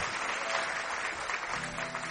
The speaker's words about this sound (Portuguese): Vamos aplaudir a Ele.